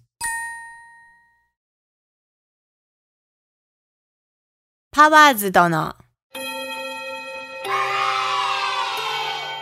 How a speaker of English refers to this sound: Ah, too bad. That's the end of class bell for today.